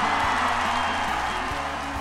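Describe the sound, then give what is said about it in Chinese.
Dense, steady applause from a large crowd: many hands clapping at once in a continuous wash of noise, fairly loud and unbroken for about two seconds, with no voices over it. “我觉得此处应该给你点掌声，热烈的掌声。”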